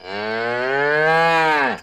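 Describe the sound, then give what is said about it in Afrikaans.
A single long, loud cow moo held steadily for almost two seconds, rich and harmonic, dropping in pitch as it trails off at the end. No voices accompany it. “Daarna is dit die koei se beurt.”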